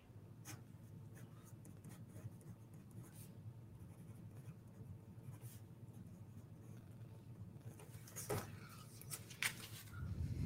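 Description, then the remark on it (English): A pen or marker scratches across a surface in short, irregular strokes, fairly quiet, drawing a three-part funnel diagram, with a steady low hum underneath and a few sharper scribbles near the end. “So let's draw a funnel.”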